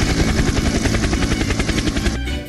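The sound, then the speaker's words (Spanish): A helicopter's rotor thuds in a rapid, steady chop, loud, with a broad roaring whine over it that thins out near the end. “Se la mandamos por helicóptero”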